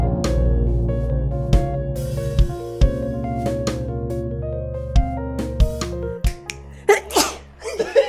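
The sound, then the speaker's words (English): Over a bed of sustained musical tones and sharp percussive hits, one loud sneeze bursts out near the end, followed by a quick breathy exhale. “I've been waiting like two minutes to sneeze.”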